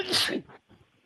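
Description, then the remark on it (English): A single sharp sneeze bursts out loud, a bright noisy blast lasting under half a second, followed by a brief faint breathy trail and near quiet. “Bless you.”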